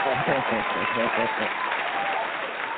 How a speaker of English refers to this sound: Well, it's been excellent having you guys on. You did a wonderful job. There's the applause.